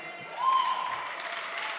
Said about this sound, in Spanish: No es tanto para aplaudir. Espero que el aplauso quiere decir que alguien entendió.